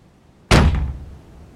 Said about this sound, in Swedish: Vinden slet tag i dörren och i min förvåning kunde jag inte hålla emot utan dörren slogs upp på vid gavel och slog rakt emot husväggen med sådan kraft att hela huset skakade.